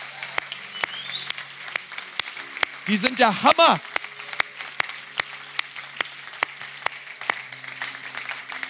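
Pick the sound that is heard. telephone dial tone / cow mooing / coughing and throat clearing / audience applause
audience applause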